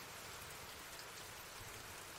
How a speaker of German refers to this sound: Es war kalt, windig und der Regen tropfte nur so auf den Asphalt.